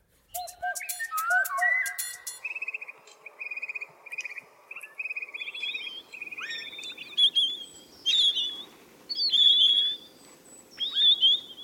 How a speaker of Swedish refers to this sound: Ja, det här ljuvliga lätet är det många som haft möjlighet att höra på sistone. Det kommer från tallbitar som sitter lite förnöjsamt och äter rönnbärskärnor i ett träd ofta påfallande oskygga.